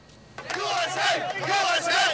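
A crowd cheering and shouting together in the streets of Dearborn, Michigan, as members of the largest Iraqi exile community in America celebrate the fall of Baghdad; a dense, loud wash of many raised voices with rising and falling whoops, starting abruptly after a brief quiet moment and sustaining throughout.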